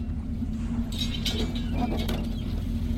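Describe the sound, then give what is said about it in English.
A ship's anchor chain runs out with a clattering metallic rattle as the anchor is dropped to anchor in the ocean for the night. The rattle starts about a second in and continues over a steady low engine rumble. “Drop anchor.”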